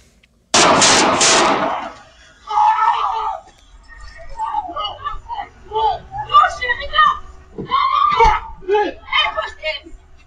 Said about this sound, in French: Écoutez l'extrait, vous allez entendre trois coups de feu et puis ce moment là, de stress très intense.